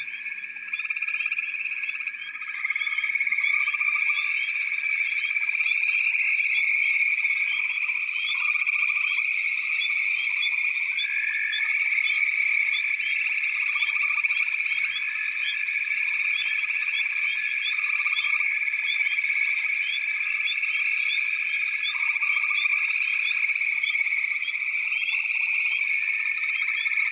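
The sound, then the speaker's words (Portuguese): A dense chorus of frogs croaks continuously, a steady high-pitched trilling drone with rapid pulsing calls layered on top, sustained at even loudness throughout with no voices. “Este é o momento que você vai potencializar o animal de poder que é o sapo.”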